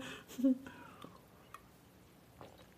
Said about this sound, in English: Um, I'm going to take a sip of my Corona.